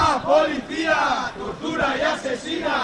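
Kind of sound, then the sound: crowd, crowd shouting slogans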